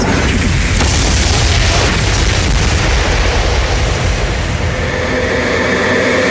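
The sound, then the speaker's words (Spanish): A loud, deep explosion effect rumbles without letup for several seconds, a dense roaring boom heavy in low bass, with no voices over it. “Bueno, este promo debería de ser con explosiones.”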